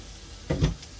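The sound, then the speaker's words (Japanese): Meat is placed in the middle of a hot grill, after vegetables were put on first, with a short burst of crackling sizzle that swells for a moment and then eases off into a quiet hiss. No one speaks. “肉より先に野菜入れてもらった肉を真ん中にのせ”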